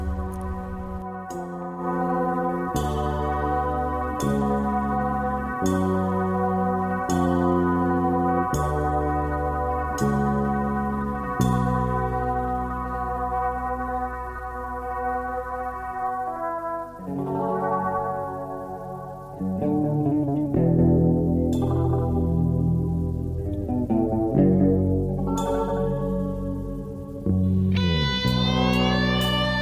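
An instrumental rock track plays at full loudness: steady, pulsing chords with sustained tones, shifting midway into a busier, brighter passage with rising melodic lines. No one speaks or sings.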